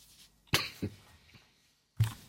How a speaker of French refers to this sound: vous toussez un peu, cher. Euh, oui, je, le, le, coronavirus. Je, m'inquiète un peu de votre euh, présence. Je vais vous demander de mettre un masque euh, si vous continuez.